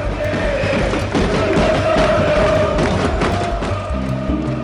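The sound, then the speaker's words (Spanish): A large protest crowd in Argentina chants "que se vayan todos" in steady rhythm while people bang pots (a cacerolazo), metallic banging and thuds repeating throughout, a dense, loud din demanding the government resign. “Se escuchaban cacerolazos todo el día. Y acompañados del cántico, que se vayan todos, que no quede ni uno solo.”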